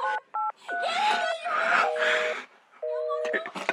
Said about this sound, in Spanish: Ya sé. Llamo por teléfono emergencias.